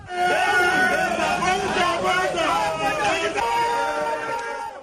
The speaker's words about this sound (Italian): Più di 180 migranti hanno preso d'assalto il posto di confine tra il Marocco e l'enclave spagnola di Ceuta. Nelle immagini le grida di gioia di chi ce l'ha fatta mentre i poliziotti restano immobili, incapaci di fermarli.